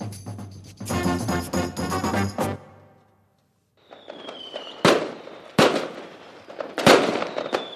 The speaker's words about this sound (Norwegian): Da fyrverkeriet gikk i luft, lufta og klokka tikka mot 2015